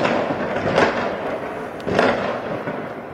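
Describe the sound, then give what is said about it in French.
Two sharp firework mortar blasts go off about a second apart during a night of urban violence in the Cité du Val d'Argent in Argenteuil, France, where cars were set on fire; each a loud crackling bang with a short tail, over a steady, noisy rumbling background. “Des voitures ont été incendiées. tir de mortier.”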